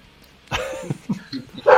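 A handful of sharp dog barks and yelps from a video game come in irregular bursts, fairly loud, with a stronger bark at the end. No one speaks.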